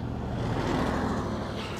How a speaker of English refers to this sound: Oh, another truck.